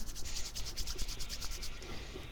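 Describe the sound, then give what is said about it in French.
A hand rubbing a crystal ball in quick, steady strokes, roughly ten brisk swishes in a row, moderately loud, with no voices. “Eh bien, qui frotte la boule de cristal cette semaine”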